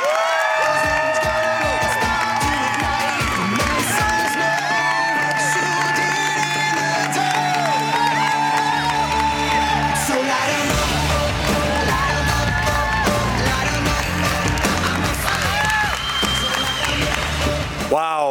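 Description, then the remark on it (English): A large crowd at a Republican campaign event cheers, claps and whoops continuously for about eighteen seconds as a candidate is welcomed to the stage, a dense, loud roar with scattered yells, while upbeat music with a steady bass line plays underneath. “what a crowd.”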